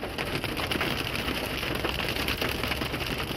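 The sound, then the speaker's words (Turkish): Heavy rain pours down steadily in a dense, hissing wash in Antalya, Turkey, leaving pools of water on the roads, with a faint engine hum underneath and no voices. “Antalya'da şiddetli yağış nedeniyle yollarda su birikintileri oluştu.”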